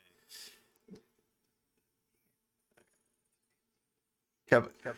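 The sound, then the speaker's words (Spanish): Short breathy puffs of air hit a microphone, a soft gust early on and a louder, rougher burst at the end, with quiet stretches between and a brief bit of voice. “que se lo oye soplar por ahí.”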